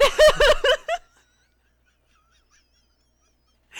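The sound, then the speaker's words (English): A crow calls loudly, a quick burst of four or five harsh caws within about a second, followed by near silence before a faint new sound begins at the end. “A crow.”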